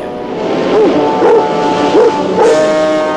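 dogs barking

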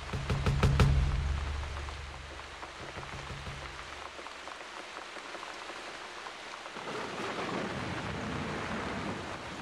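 heavy pouring rain

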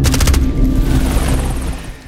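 gunfire and explosions

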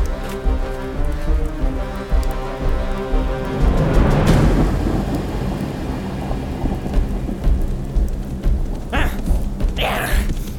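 heavy rain with thunder

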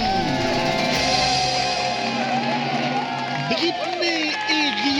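audience applause and cheering

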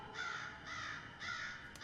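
crow cawing

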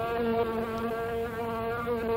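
housefly buzzing

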